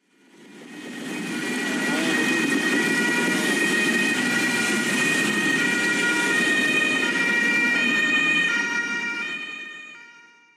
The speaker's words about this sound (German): Ja, Sirenengeheul im Verkehr. Warum, Herr Edenhofer, haben Sie diesen Ton, dieses Geräusch ausgewählt?